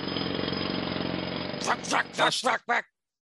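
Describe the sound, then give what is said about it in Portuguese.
A voice imitates a drilling machine's engine with a steady, buzzing drone for over a second, then breaks into a few short, choppy vocal bursts before stopping. “Se ligou o motor, né? De, de, é, tipo, máquina de, de perfuração.”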